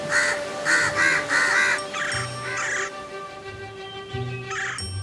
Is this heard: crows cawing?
yes